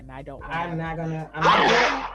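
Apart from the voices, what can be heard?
sneeze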